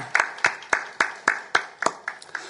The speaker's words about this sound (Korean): 하나님께 감사와 영광의 박수를 올려드리겠습니다.